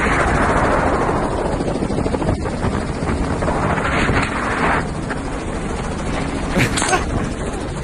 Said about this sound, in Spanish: Están, están cazando. Ajá, cazando, así en un helicóptero.